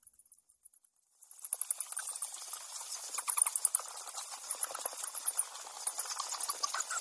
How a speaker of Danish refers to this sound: Kan I prøve at høre, hvordan en, øh, en, en flagermus nogenlunde arbejder?